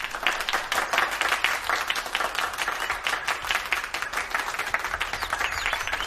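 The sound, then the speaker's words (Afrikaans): A crowd claps hands together in sustained applause, a dense, steady patter of many overlapping claps that stays fairly loud and even throughout, with no talking. “Weer klap almal hande.”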